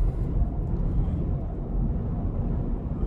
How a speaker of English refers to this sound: Okay, a lot of uh, traffic here at the moment.